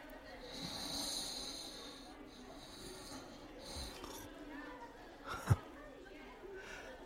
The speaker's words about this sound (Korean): 당신도 코를 골 때가 있군.